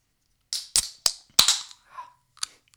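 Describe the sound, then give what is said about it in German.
A beer bottle is opened: a few sharp metallic clicks and pops, each followed by a short fizzy hiss, with no one talking. “außerdem haben wir noch ein Bier. Warte.”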